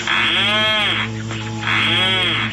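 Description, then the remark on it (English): Two drawn-out, low groaning calls of a rhinoceros auklet, each swelling and sagging in pitch with a buzzy, cow-like moan, separated by a short pause. No voices. “The rhinoceros auklet.”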